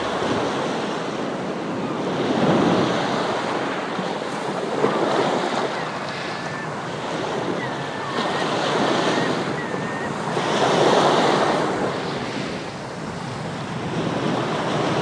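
Ocean waves roll in and break on a sandy beach in warm sunshine, in slow, steady surges, a broad wash of surf rising and falling every few seconds, with a faint high bird call drifting over it.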